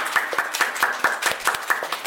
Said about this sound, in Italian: Beh, ma allora voglio tutto. un altro applauso. Voglio un altro applauso, signori.